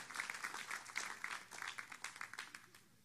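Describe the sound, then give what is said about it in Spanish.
A crowd claps together in a dense, steady burst of applause for the Lord, loud and sustained before slowly thinning out toward the end. “¿Puedes darle un aplauso al Señor ahora? Déselo fuerte porque Él se la merece.”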